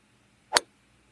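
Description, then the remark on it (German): A single crisp, sharp click of a golf ball being struck, brief, standing alone against a quiet background with no voices. “Und ein Tiger war in dieser Sportart mal ganz gut. Golf.”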